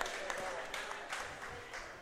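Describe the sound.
A crowd applauds steadily, a dense patter of many hands clapping at a moderate distance, with some murmuring voices mixed in throughout the short burst.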